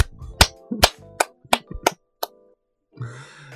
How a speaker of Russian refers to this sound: В конце хлопаем? Да. Зачем-то просто похлопаем друг другу.